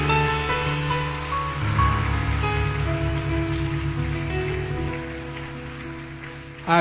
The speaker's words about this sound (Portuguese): Vamos dar um forte aplauso a ele porque essa palavra é tremenda.